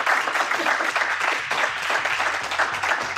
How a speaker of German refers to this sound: einen großen Applaus für Lena Kassel